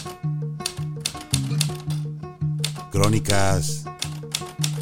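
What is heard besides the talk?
typewriter keys clacking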